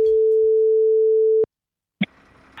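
telephone ringing tone

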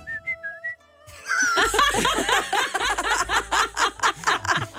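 person whistling

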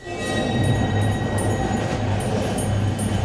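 train rumbling on rails

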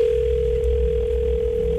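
telephone ringing

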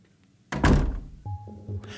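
door slammed shut

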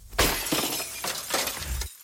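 car windshield glass breaking

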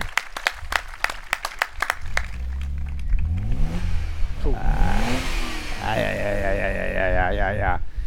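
crowd applause

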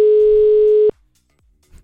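telephone ringing tone

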